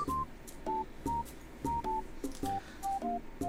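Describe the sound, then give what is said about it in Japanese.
A mobile phone rings with a bright, beeping melodic tone, short electronic notes repeating in quick bursts, fairly close and clear, with no one talking over it. “これね本来はね誰だ携帯を本来はねどこの携帯だ”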